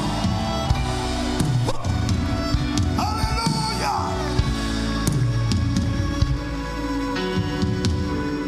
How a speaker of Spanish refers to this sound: Vamos a darle un grito de gloria al Señor.